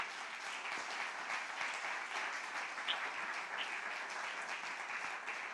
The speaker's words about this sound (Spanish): Bueno, déle otro aplauso al Señor porque eso es maravilloso.